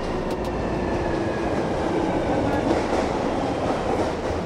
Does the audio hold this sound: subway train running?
yes